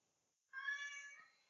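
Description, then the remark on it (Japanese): A single drawn-out cat meow rises suddenly after a short quiet pause and holds for about a second, clear, with no one talking over it. “えっと、えー、っと、ごめん、猫が鳴いてた。”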